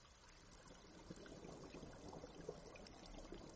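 Water sloshing and lapping with small irregular splashes as a body is put into the water of a swamp, set against a steady hiss of rain falling on the swamp; quiet and continuous throughout, no voices.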